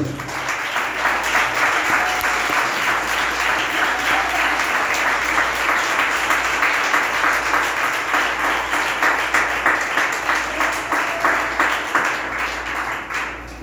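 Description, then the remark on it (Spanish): An audience bursts into sustained applause for the Lord, many hands clapping in a dense, steady wash that holds loud for over ten seconds before easing slightly at the end. “Bueno, démosle un aplauso al Señor, ¿qué les parece?”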